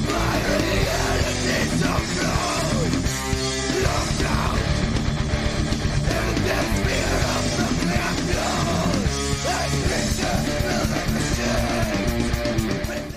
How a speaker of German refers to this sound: es kommt jetzt ein Song von …, in der eben ich äh, Frontmann und Sänger gewesen bin Damals noch sehr ungeübt mit Vocaltechniken, aber dafür druckvoll und unaussagekräftig. Jetzt ein Song von ….